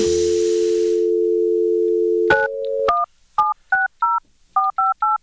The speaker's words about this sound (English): I'm calling … of … right here on the Bako Tunes podcast to see if he answers